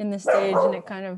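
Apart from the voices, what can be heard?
mixed-breed dog barking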